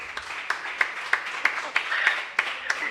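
Steady rhythmic applause, about ten sharp claps at an even pace, moderately loud over a hissy background with faint tonal whistling or cheering mixed in. No talking is heard.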